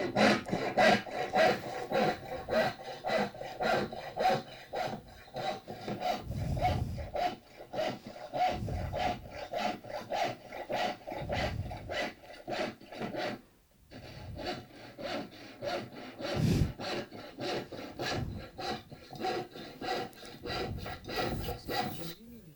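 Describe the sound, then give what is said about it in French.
Steady back-and-forth sawing through wood while a wooden box is being made, with rasping and scraping strokes in a continuous rhythm, fairly loud, pausing briefly midway before resuming. No voices. “du son, hein, du son qui est des actions qui ont été menées pendant justement la fabrication de la boîte. Alors je veux vous faire entendre justement le son de la boîte qui a été enregistré euh, lors d'une exposition, si ça marche.”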